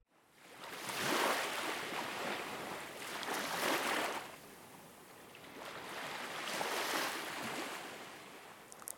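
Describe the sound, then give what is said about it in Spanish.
Soft ocean waves wash in and recede in slow, broad swells, about three gentle surges rising and fading with a steady hiss of surf between them, with no voices. “que al tiempo que voy leyendo el poema, me acompañara como si fuera un oleaje en tono bajito para acompañar este océano de palabras”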